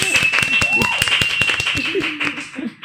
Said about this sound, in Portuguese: Uma salva de palmas para minhas convidadas, sejam muito bem-vindas.